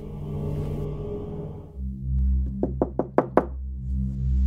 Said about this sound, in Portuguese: Eles chegaram lá, bateram na porta, só que ninguém atendeu.